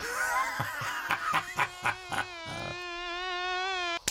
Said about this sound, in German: Ah, verdammte Moskitos. Elende Blutsauger. Ihr blöden, blöden Mücken, zerstecht mich von Kopf bis Fuß.